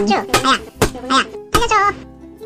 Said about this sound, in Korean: 저는 열심히 때렸고 그때마다 두저, 두더지는 왜 때려? 왜 때려? 왜 때려? 이 하면서 나왔다 들어갔다를 반복했습니다.